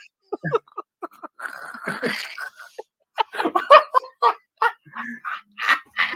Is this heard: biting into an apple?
no